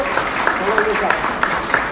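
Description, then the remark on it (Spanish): A crowd applauds in gratitude to the Lord in a steady, dense patter of clapping that carries on throughout, with a few sharper claps standing out and voices faintly mixed in underneath. “Qué bien, bueno, pues ese aplauso sea para el Señor de gratitud.”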